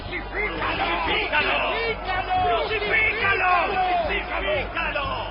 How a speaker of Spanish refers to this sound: Cuando lo vieron los principales sacerdotes y los guardias del templo comenzaron a gritar.